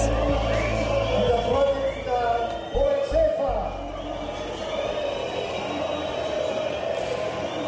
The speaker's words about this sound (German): der Fortuna-Vorstandsvorsitzende Robert Schäfer, ausgebuht von den Fans seines eigenen Vereins bei der Fortuna-Karnevalsparty am Samstagabend. Er versucht es wegzulächeln.